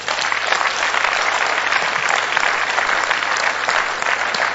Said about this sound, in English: You should clap for the Lord.